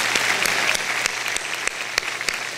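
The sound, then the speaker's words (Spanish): Steady applause from a church audience for its servers, a dense patter of many hands clapping at an even loudness for a couple of seconds, with no voices rising above it. “aplauso para nuestros servidores.”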